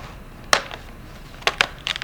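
A Chromebook's plastic casing being pried apart: a handful of sharp, bright cracks and snaps at irregular intervals, with a few softer clicks between them and no talking.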